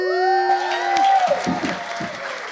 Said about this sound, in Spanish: Con ustedes quiero que le den un gran aplauso a Lorena Penyan.